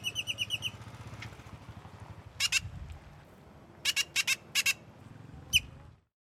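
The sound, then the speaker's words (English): A songbird whistles its song in short, bright bursts of rapid repeated notes, grouped into a few phrases with pauses between, clear over a low background rumble. “He's just playing his role in our movie, showing off his formidable repertoire and whistling our never ending wedding on its way again.”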